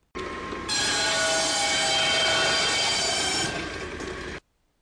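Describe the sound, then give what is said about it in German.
A loud, piercing screech meant to render bats' ultrasonic echolocation calls audible to humans, held steadily for about four seconds with dense, metallic harmonics, then cutting off abruptly. No one speaks. “Zum Glück, denn ihre Schreie würden sich für uns ungefähr so anhören.”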